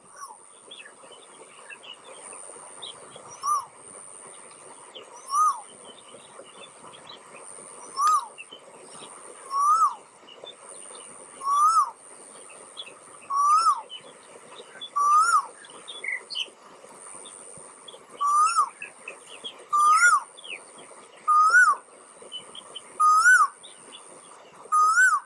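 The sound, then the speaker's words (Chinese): A koel cuckoo calls over and over, about a dozen rising whistled notes spaced a second or two apart, growing louder as it goes, over a steady high insect hum and faint chirps. “那么我们就来欣赏一下灶间的叫声吧。”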